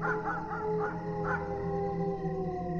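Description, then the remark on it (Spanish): Dogs howl at night under a full moon in long, sustained cries that slowly climb in pitch, overlapping into a steady, mournful chorus with no pauses, fairly loud throughout. “Los perros comenzaron a aullar,”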